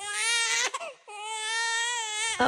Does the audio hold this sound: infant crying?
yes